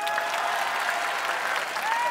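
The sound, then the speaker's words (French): An audience applauds on request, those whose spouse sometimes gets on their nerves clapping: a dense, even patter of many hands clapping at once with no pauses, staying loud and constant throughout. “Applaudissez ceux dont le conjoint leur tape parfois sur les nerfs.”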